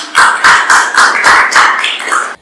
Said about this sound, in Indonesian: hey, tepuk tangan lagi dong.